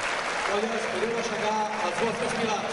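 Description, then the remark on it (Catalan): A crowd at a castells event applauds steadily, castellers dedicating the ovation to their supporters, a dense wash of clapping that fills the whole clip at an even, loud level, with a murmur of voices mixed in underneath. “parla del públic i els castellers que dediquen aquesta ovació a la seva afició.”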